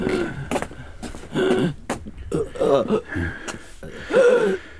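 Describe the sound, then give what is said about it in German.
An injured man after a crash gasps for air again and again in ragged, strained breaths mixed with breathy vocal groans, sounding like a voice acting out someone struggling to breathe. “Er äh, japst nach Luft.”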